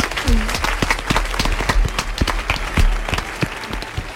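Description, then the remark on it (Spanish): An audience claps steadily for about four seconds, a dense patter of many hands with sharp individual claps standing out, fairly loud and even throughout; the applause is for El Corte Inglés and its elves. “A Gracias, Dale un aplauso al corte inglés, venga a sus elfos.”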